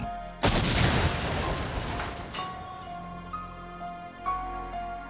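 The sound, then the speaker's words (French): A single sudden, loud parcel bomb blast bursts out near the start, then decays into a long rumbling wash with faint ringing, metallic tones lingering afterward. No one speaks. “Les analystes dressèrent une carte des différents points d'impact de l'explosion afin d'évaluer l'importance de la bombe.”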